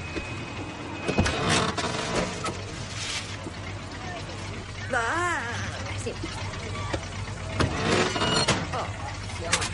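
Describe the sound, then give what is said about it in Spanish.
A car's front passenger door unlatches and swings open with a few sharp clicks and thumps, set against a steady low vehicle hum, with a brief voice-like murmur midway. “Abre la puerta del copiloto.”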